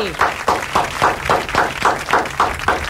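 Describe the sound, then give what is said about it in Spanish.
A studio audience claps in steady unison, about three to four claps per second, keeping a brisk even rhythm that stays moderately loud throughout, with faint crowd voices mixed in. “Ya está con el aplauso, te lo pido, por favor.”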